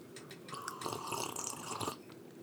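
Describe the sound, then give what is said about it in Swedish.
Wet slurping sounds of two people sipping brewed coffee, a couple of overlapping sips with small liquid gulps, fairly quiet with no talking. “Vi drack, Tycker du, vi, vi, drack i stereo där.”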